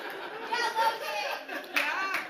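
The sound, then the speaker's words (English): A crowd claps in a loose, scattered burst, mixed with chatter and a few chuckles. The applause is moderately loud and uneven rather than a steady rhythm. “Don't clap. Don't clap. That's not good.”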